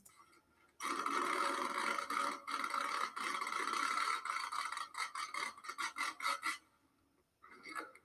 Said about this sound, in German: Er tut so eine Schutzfolie von einem Teppich ab. Oh, Digga, das hört sich übelst krass an.